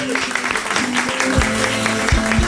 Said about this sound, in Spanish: Míralo, dame un plano. Mira, qué belleza, Un aplauso para este público increíble.